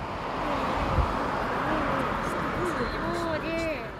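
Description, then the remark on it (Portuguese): A car travels along the coastal Marginal road that links Lisbon to Cascais. Its steady engine and tyre rumble fill the background while a voice talks over the constant drone. “Seguimos de carro pela estrada marginal que liga Lisboa a Cascais.”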